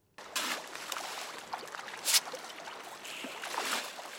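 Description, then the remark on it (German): Steady churning and splashing water, with a thrashing commotion of trout at the surface as they are fed at the Rameil fish farm in North Hesse, Germany, and a sharper splash burst midway, without any voices. “Forellenfütterung in der Fischzuchtanlage Rameil in Nordhessen.”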